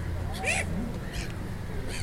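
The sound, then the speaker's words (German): A seagull squawks at a person trying to photograph it, giving three short, harsh squawks spaced about a second apart, clear over a steady low outdoor rumble. “Möwe meckert Cornelis an.”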